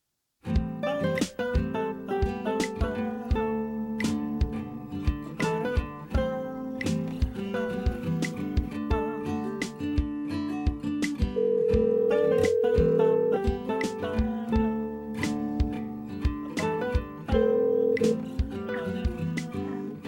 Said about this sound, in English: So while I get him on the cell phone, you're going to hear a little bit of bumper music,